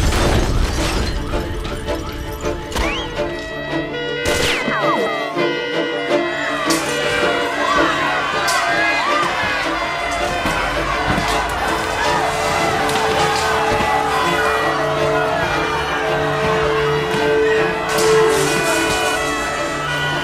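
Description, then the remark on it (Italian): A dense crowd shouts and yells in a chaotic street clash in Italy in the early 1970s, with overlapping voices throughout and occasional sharp bangs and crashes cutting through the constant loud din. “bombe, spari, scontri di piazza, morti.”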